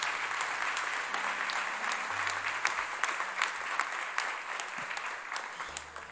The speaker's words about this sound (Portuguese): Se você recebe essa palavra, se coloque em pé e aplauda o nome do Senhor Jesus.